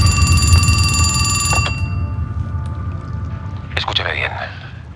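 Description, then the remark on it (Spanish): A telephone rings in a dining room with a bright, sustained bell-like tone for under two seconds, then stops, over a steady low rumble of room noise and faint murmuring. “En el comedor, el teléfono suena ante Berlín, Helsinki y Tokio.”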